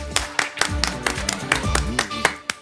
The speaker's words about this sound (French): Quel applaudissement, qu'est-ce que j'aime ça.